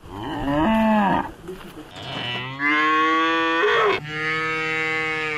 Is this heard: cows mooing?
yes